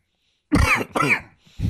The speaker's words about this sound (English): I don't know, why I am having a coughing fit.